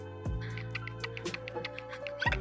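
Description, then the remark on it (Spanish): Moist clicking from an eye being rubbed: roughly a dozen small irregular clicks over about two seconds, soft but distinct above a steady low hum, with no talking. “A mí me suena así el ojo.”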